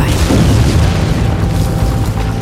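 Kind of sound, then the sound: sound effect, explosion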